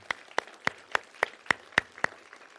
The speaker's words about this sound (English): Just give God another hand clap of praise for Pastor Matt.